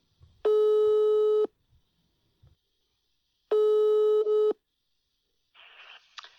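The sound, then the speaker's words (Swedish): A phone line's ringback tone sounds twice, each a steady, buzzy one-second beep with a short silence between. A brief faint hiss of line noise follows at the end. “Och med det sagt så ringer vi upp”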